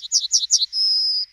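A bird sings: three quick, bright chirping phrases followed by a single sustained high whistled note, clear and alone with no background noise.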